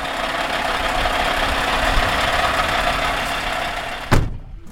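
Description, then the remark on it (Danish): The large diesel 540 engine of a Scania R540 truck idles steadily with a low, even rumble at a truck test-drive event in Trysil, then cuts off abruptly near the end with a brief clunk before falling quiet. “Det er jo nok den største nyhed, som Scania har med. Det er den her 540-motor.”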